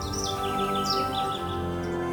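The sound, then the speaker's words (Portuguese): Birds chirp and tweet in quick, repeated high calls over a steady, dense background, moderately loud, with no one talking. “Os sons dos pássaros nos levam a uma viagem no tempo.”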